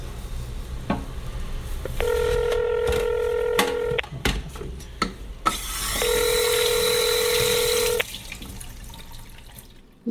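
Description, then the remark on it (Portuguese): A telephone call rings out: two steady, buzzing ring tones about two seconds each with a pause between, over faint running water and clinking dishes as the caller washes the dishes. Nobody speaks. “Deixa eu ligar aqui.”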